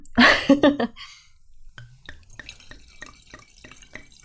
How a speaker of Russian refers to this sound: Э, капли падают прямо на новую скатерть. Вот ее боевое крещение.